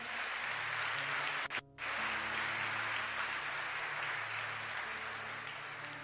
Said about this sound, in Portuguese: Pode aplaudir aquele que é santo.